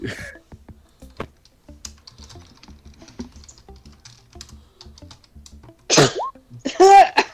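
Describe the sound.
Soft keyboard typing clicks away steadily, then a loud sneeze bursts out near the end, with a sharp intake and a forceful voiced release.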